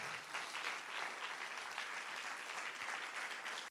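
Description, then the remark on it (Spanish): An audience claps loudly for God, a dense wash of many hands sustained for several seconds before cutting off abruptly at the end. “Si usted lo cree, ahora sí den un aplauso fuerte a Él.”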